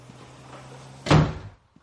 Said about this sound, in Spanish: Skyler entra. Walt cierra la puerta.